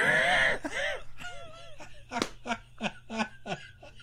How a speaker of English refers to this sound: You heard that on the mic. Nick slapped his knee real hard.